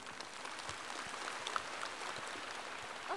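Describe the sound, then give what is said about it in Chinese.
An audience claps continuously, a dense, steady wash of many hands with a crackling, rain-like texture that stays even in loudness throughout, with no voices, applauding at a meeting to thank Lu Junhong for his talk. “热烈的掌声，感恩卢军红台长的精彩开示。”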